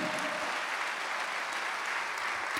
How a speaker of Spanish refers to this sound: ¿Cuántos dicen amén, amado hermano? Si estás de acuerdo, dale gloria a Dios y dale un aplauso al Señor. Amén.